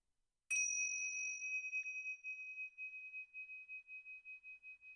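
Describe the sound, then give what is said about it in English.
A single bell is struck once and rings out alone, its bright tone lingering in a long, slowly fading decay with a gentle pulsing shimmer. “And now begin to bring your attention back and when you hear the bell, we can finish.”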